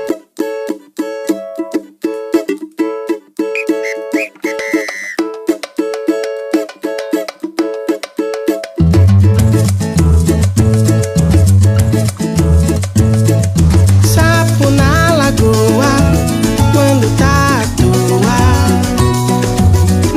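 An upbeat song plays loud and clear: a bright, bouncy intro of plucked notes, then after about nine seconds a full band with thumping bass and steady drums joins in.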